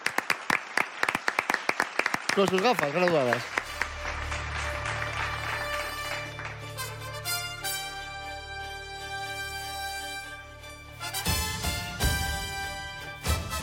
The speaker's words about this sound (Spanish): Un aplauso.